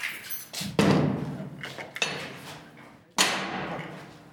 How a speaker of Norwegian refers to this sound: Audun Myhre lukker døra til torturrommet.